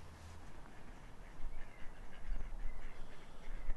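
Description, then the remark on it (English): Ducks quack in scattered, overlapping calls, set against a steady wash of outdoor ambience beside a loch in mid February, with no one talking. “You can hear the ducks and the lochside there.”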